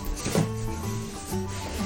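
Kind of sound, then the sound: household object, cardboard box being opened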